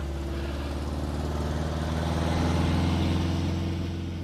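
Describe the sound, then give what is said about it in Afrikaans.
A car engine idles steadily on a cold night, heard from inside the car: a low, even rumble with a faint rhythmic throb that holds at constant loudness throughout, with no voices. “Jees, ek moet net hier in die kar aan die slaap raak nie.”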